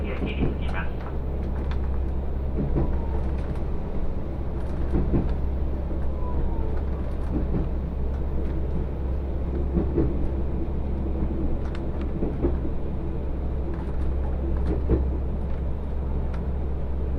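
Inside the Ai Yoshinogawa Torokko trolley train on the Tokushima Line, travelling from Sadamitsu and stopped for six minutes: a steady low engine rumble idles throughout, with faint indistinct chatter and occasional clicks and knocks in the background.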